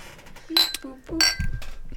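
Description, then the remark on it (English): Glasses clink together in a toast, two bright ringing chinks about half a second apart, fairly loud, with faint voices and low murmuring around them. “Uh, cheers. ten, uh, ten cheers minimum.”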